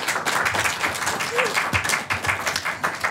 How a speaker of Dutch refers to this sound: Maar vanuit het Haagse cultuurhuis Amare met zo'n 20, 25, 500 toeschouwers. Welkom allemaal. Eh, eh, eh, applaus voor jullie, voor ons. Alvast.